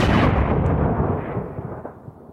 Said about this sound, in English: To offset the charge, one of the marksmen in the rifle pits, Strong Left Hand, took careful aim at the single officer boldly walking back and forth. Then, aiming low, he squeezed the trigger on the buffalo rifle.